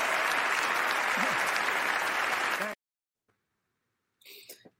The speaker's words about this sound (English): Dude, we've got to look at this second guy clapping.